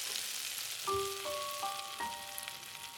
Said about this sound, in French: C'était aussi une joyeuse musique, celle produite par les grésillements et les sifflements du beurre.